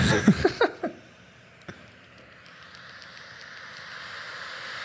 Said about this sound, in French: Bruit blanc, ben c'est ça ton white noise. Ouais. Ça, c'est quelque chose d'un peu agressant, je trouve. Ouais. Mais c'est, c'est supposé jouer là dans le cerveau.